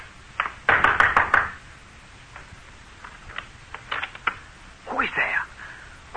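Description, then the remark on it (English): Several sharp knocks rap on the wooden rear door of a house in a quick cluster, followed by a few softer, scattered taps, with a brief muffled sound near the end. “I walked boldly to the rear door and knocked.”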